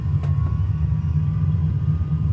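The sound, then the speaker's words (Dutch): A steady, loud engine roar with a deep, throbbing rumble, holding constant without pauses, from aircraft engines as the throttle is opened for takeoff. No voices are heard. “Ik geef nu gas, we gaan nu de lucht in. We hebben nou genoeg gekletst. Kijk eens naar die metertjes. Hoor de motoren loeien.”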